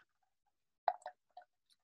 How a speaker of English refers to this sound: Uh, sorry, I have to take a sip of water.